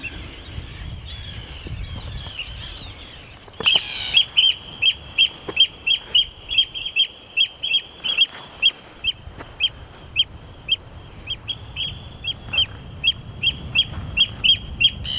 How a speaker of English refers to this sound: I think he's I think he's responding to that gull, but I'm not sure.